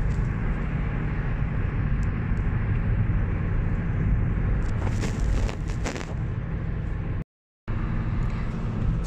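car interior rumble

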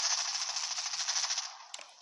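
video game gunfire

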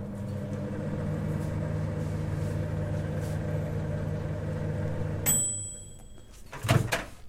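microwave oven running

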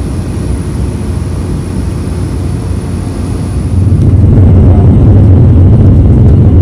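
airplane taking off

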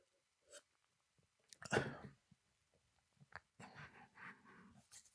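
sipping water

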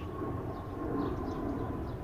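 airplane passing overhead

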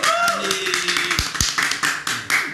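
audience clapping

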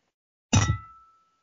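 glasses clinking

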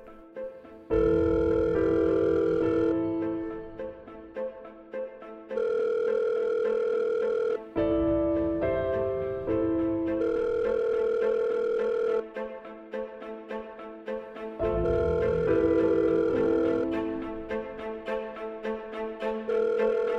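telephone call ringing tone

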